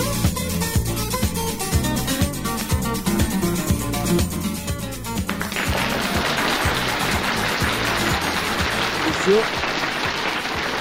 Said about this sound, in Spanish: Yo, le pongo aplausos.